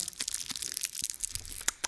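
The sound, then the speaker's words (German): Continuous crinkling of a Dark Creme chocolate wrapper, with dense bursts of crackly rustling and sharp little crunches throughout, no voices. “Folgt dem Knistern und dem Schmatzen.”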